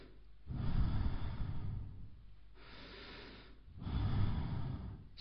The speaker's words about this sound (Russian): Есть такая мантра «сохам», а вот я слушайте внимательно, когда я буду дышать.